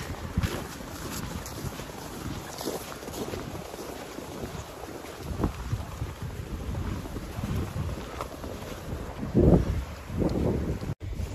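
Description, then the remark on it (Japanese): A steady wash of the Toyohira River flowing fills the background while footsteps crunch through fresh snow about 15 to 20 cm deep on the riverbank at 7:10 in the morning, landing every second or so in an uneven walking rhythm. No one speaks. “朝7時10分、豊平川の河川敷にやってまいりました一年一面真っ白系銀世界、えー、20センチ近いかな20までいかないかなやっぱ15センチかなえー、新しい雪歩くのは気持ちいいですね川の音と雪の音と聞こえますかね”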